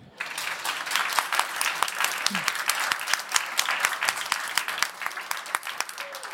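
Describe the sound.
A live audience bursts into sustained applause on the host's cue, many hands clapping in a dense, crackling patter that holds steady at a fairly loud level for several seconds, with a few voices faintly mixed in.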